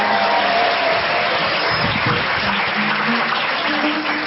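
Steady audience applause fills the whole stretch, a dense wash of many hands clapping at an even, loud level without a break, with no one speaking over it.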